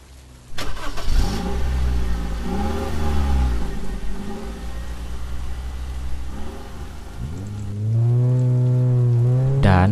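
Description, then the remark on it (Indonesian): A car engine hums and revs as it drives through steady rain that is growing heavy, with a broad hiss of rainfall throughout and the engine pitch rising near the end. No one speaks and the car's tape player is silent. “Mobil itu pun melaju menembus rintikan hujan yang mulai deras.”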